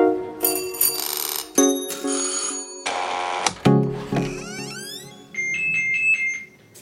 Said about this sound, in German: Oh, ein sehr moderner Klingelton.